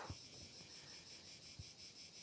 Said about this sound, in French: Laisse la cigale pendant au moins cinq minutes.